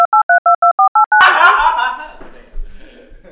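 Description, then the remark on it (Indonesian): A rapid run of about seven short, loud electronic beeps, like a censor bleep with phone-dial tones, cut off abruptly by people talking and laughing. “Mungkin kalian yang mendengar ini ya gak bakalan ngerti karena disensor kan.”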